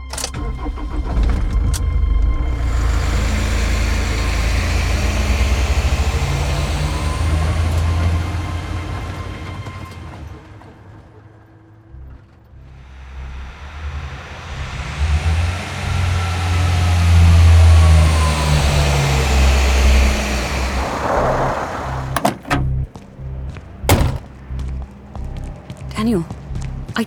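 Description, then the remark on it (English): A heavy truck engine rumbles loudly, revving up and down. It fades briefly partway through, then roars back, with sharp knocks and clatter near the end. “You can't take that truck!”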